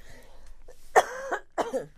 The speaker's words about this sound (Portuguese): E se calhar, olha eu a tossir.